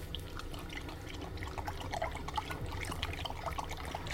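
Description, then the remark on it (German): A dog laps up beer a man lets it drink, a steady run of quick, wet, slurping licks lasting several seconds, with no talking over it. “Der Hund will auch und bettelt, bis ihn der Mann labbern lässt.”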